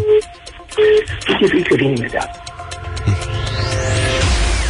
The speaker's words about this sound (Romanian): Aia, sună în continuu telefonul, colegii vorbesc alte telefoane, e haosul de pe pământ.